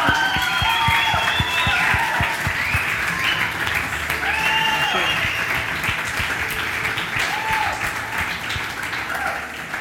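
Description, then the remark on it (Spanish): An audience applauds God steadily and loudly throughout, dense clapping from many hands, with scattered voices and high cheers rising over it. “Aplaudimos a Dios porque como hemos cantado, aunque no podamos ver, Él está obrando y Él no ha dejado de obrar”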